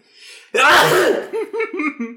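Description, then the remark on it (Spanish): A quiet intake of breath, then one loud sneeze bursting out from a person with an itch, followed by a few short voiced sounds like a chuckle or muttering. “No sé, me dio comezón y la primera vez que estornudé, me quitó.”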